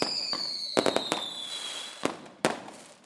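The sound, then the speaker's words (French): Fireworks at an evening village festival pop and crackle in a rapid series of sharp bursts, some clustered together, while a high whistling tone slowly falls in pitch underneath. No voices are heard. “ils ont dit voilà, vous pouvez aller voir le feu d'artifice si vous voulez, c'est la fête au village ce soir”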